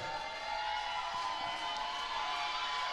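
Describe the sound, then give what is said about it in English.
A large audience at a worship service shouts and cheers together in praise of God, a sustained, dense roar of voices with no instruments, steady and fairly loud for the whole stretch. “Hold on, just the voices. I need to hear a sound right there.”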